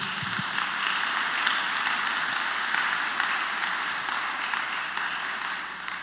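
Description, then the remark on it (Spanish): A crowd applauds steadily for several seconds, a dense, even wash of many hands clapping at once with no talking over it. “démosle un fuerte aplauso aquí.”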